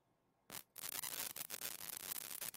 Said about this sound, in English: Nope. Still static. This is wonderful.